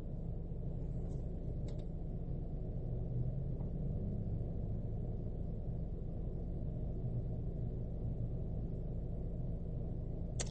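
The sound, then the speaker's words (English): A car engine idles with a low, steady rumble droning continuously while the speaker sits inside the car, with no speech, just a constant low-pitched hum filling the background. “So you probably heard the car running.”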